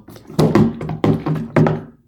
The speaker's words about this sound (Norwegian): Hører at det åpnes en dør, ja.